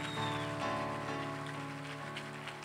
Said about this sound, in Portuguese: Dê uma salva de palmas a Jesus aí.